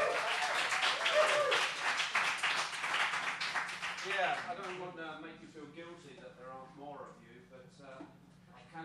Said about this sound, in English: So please, a round of applause for the panel.